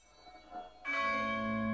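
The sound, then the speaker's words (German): A bell rings out with a bright, sustained metallic tone after a quiet lead-in, its harmonics lingering and humming steadily; a faint earlier chime is heard just before the strong strike. “Eine Glocke, die das Herz erbeben ließ.”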